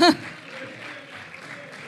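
A short burst of applause, a steady crackle of many hands clapping at moderate loudness, opening with a brief vocal sound before the clapping carries on evenly.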